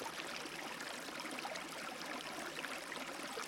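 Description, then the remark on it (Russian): A steady, gentle rush of flowing stream water with a fine babbling texture, continuous and even throughout, fairly soft and heard on its own with no voices. “эта вода очищает, дает силу, дает уверенность, спокойствие, некий внутренний комфорт.”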